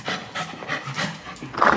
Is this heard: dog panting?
yes